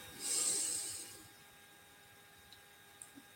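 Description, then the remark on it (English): A single deep, hissing inhale drawn through the nose during a breathing exercise, fairly loud, lasting about a second before fading into near silence with a few faint clicks. “And breathing in”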